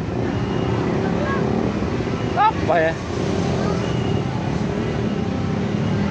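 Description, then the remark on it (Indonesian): Loud motorcycles roar past outside in Malang, Indonesia, on a Saturday night used for racing, in a steady, continuous engine drone that fills the whole stretch, with a person speaking briefly over the noise midway through. “ribut nih motor”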